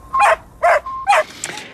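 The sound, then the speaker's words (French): A small dog, Laika, the Soviet space dog, barks three times in quick succession, sharp, followed by a fainter yelp; no voices are heard. “Leica, la petite chienne qui mourra dans l'espace.”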